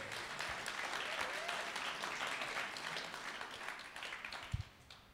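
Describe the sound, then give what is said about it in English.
A crowd applauds for God during a Christian sermon, a dense wash of many hands clapping that holds for several seconds before tapering off, with a faint voice or two rising briefly above it. “Give God a big round of applause.”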